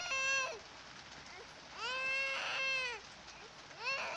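A two-year-old child screams and cries in long, terrified, high-pitched wails behind the thick wooden door of flat three: a short one, a longer rising-and-falling one, then another starting, over a steady background hiss, echoing around the damp, dark walls of the stairwell.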